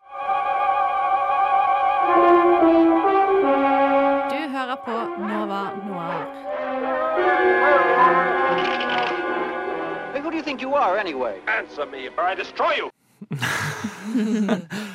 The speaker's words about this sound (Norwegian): en liten gammel eh, eh, introjingle der, som er den lyden dere hører før vi prater. Eh, Så sånn, det syns jeg var et koselig gjensyn.